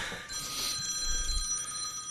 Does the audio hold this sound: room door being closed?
no